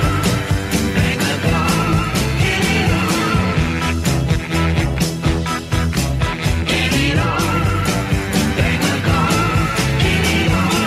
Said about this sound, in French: Mais on va écouter un extrait, ….